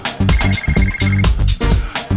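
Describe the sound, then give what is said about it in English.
A phone rings on an outgoing call to a cell phone, with loud, rhythmic bursts of tone repeating steadily for a couple of seconds and no one speaking. “Get on the cell phone. Hello? Hello? All right, now I got your answer machine.”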